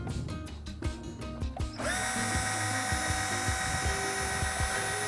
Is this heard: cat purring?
no